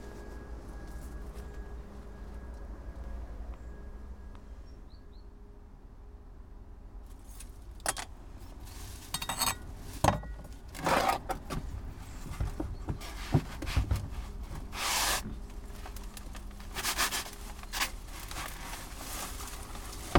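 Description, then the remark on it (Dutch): A Moroccan mint plant is lifted from its pot at a potting table in early November and shaken to remove the soil, giving irregular bursts of rustling, crumbling and soft tapping after a quiet stretch, with no talking. “Maar we gaan hem eh, uit de pot lichten en eh, de grond eraf schudden.”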